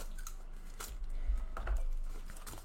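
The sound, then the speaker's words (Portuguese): Someone struggles to tear open a package, with a series of uneven rustling, crinkling bursts and strained tugging noises, moderately loud, with no talking. “Tem uns trem que o povo faz que é difícil de abrir, cara.”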